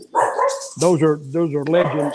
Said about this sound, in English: Stop it. That's my, that's my dog. He's agreeing with us. Yes, he's, uh, he's a big wrestling fan.